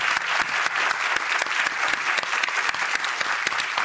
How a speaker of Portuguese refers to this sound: Por favor, aplaudam